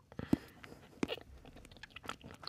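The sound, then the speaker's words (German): Quiet bites into a piece of dark chocolate during a taste test with eyes closed: two crisp snaps about a second apart, followed by soft, irregular chewing, with no one talking. “Lass abbeißen, lass schmelzen und sag, wie es schmeckt.”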